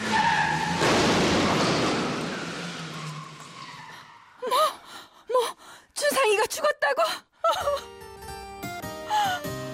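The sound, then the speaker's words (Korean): A loud truck skid screeches for about four seconds as the truck rushes at a pedestrian running into the road, then fades into short gasping cries and shouts before soft music begins, in a radio retelling of the 2002 South Korean drama Winter Sonata. “도로로 뛰어드는 준상을 향해 달려드는 트럭 공중에 붕 떠오르는 준상”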